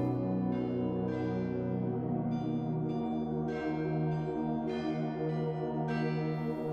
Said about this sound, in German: Da, die Glocken. Die waren doch gerade noch nicht da.